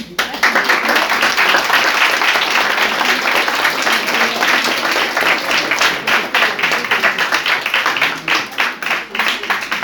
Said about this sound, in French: On va laisser la parole à la salle. Merci. On peut déjà les applaudir.